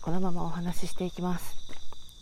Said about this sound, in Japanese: なんで今このスズムシのね声が残せてるからピンマイクにしたんですよねだから周囲の音をどれぐらい取れるかどうか聞こえてるかな2020年のね秋の虫の音は1回しか聞けないですからね残せる時に残したいなって